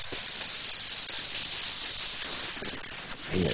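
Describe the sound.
A person hisses like a rattlesnake whose tail was stepped on, the noise made after the Radio Fritz jingle: one long, loud, harsh hiss held steadily for about three seconds, then cut off abruptly, followed by a brief low sound.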